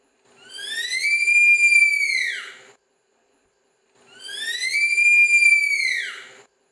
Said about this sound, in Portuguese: No perfil, eu também descobri que as preguiças fazem três tipos de sons, entre eles um assobio fino para atrair parceiros para acasalar.